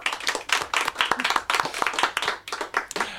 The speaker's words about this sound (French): Alors, on applaudit, bien sûr